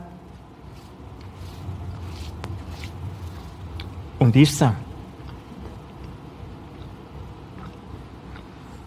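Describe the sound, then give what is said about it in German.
A single crisp bite into a piece of bread, a short loud crunch about midway, followed by muffled chewing against a low hum, with a man speaking briefly. “da sagt er nichts anderes wie das Lesen in Gottes Wort, auf Gottes Wort hören, das aufnehmen, ist das Gleiche, wenn ich da ein bisschen abbeiße.”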